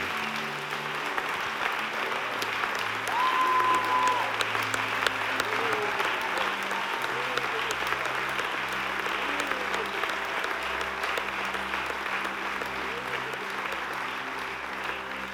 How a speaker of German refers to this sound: Können wir Jesus einen mächtigen, mächtigen, mächtigen Applaus geben?